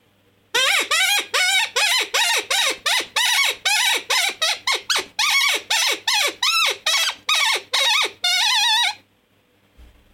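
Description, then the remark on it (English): An open reed hand call, normally used for howling, imitates a pileated woodpecker with high-pitched distress, blowing a fast, choppy run of loud, high, nasal notes, roughly two dozen, ending on one longer held note, with no talking. “Kind of sounds mm-hmm. like a pileated woodpecker or something, uh-huh.”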